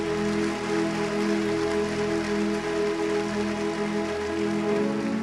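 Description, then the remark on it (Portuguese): An audience applauds for Jesus in a dense, steady wash of clapping that holds for about five seconds, with sustained low musical tones humming underneath and no voices. “Aplauda Jesus mais forte.”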